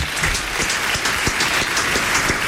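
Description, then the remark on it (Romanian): An audience applauds, a dense, steady wash of many hands clapping with occasional sharper individual claps standing out. No one speaks over it, and the volume stays even throughout. “Aplauze.”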